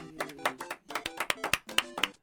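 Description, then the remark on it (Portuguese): Scattered hand claps from a small group, uneven in rhythm, with some voices mixing in underneath for a couple of seconds. “Eu gostaria de avisar, alertar que nós estamos sim na plataforma Spotify, então dá para você palmas.”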